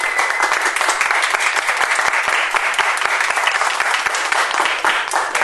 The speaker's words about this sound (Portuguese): Vou pedir, por favor, uma salva de palmas para elas, que elas são maravilhosas.